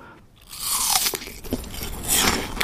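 Crisp, crunchy chewing of an apple, with repeated bright bites and wet munching in an irregular rhythm, fairly loud and with no talking over it.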